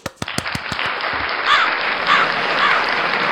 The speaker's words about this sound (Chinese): 这同学们都太热情了吧？能不能等一下再鼓掌啊？鼓掌。